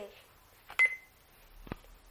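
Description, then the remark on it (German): A small electronic talking alarm clock gives a short, high beep as a button is pressed while setting the alarm time, followed a moment later by another sharp click. Fairly quiet, with no talking. “An der kann man die Wegzeit einstellen. Dann lässt sich nur die Wegzeit verändern. Einstellung Wecker.”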